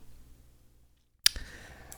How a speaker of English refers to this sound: Um, and of course, that that clicking sound you hear is uh, them tightening this uh, vice, uh, which you think is maybe going to crush Robin's head, but no,